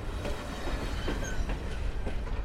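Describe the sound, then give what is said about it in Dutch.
A train rolls steadily along the rails at about 40 km per hour, slowed because a dead swan lies beside the track, with a continuous low rumble and soft rhythmic clacks of the wheels, heard from inside the carriage without any talking. “De trein rijdt met een gangetje van 40 km per uur.”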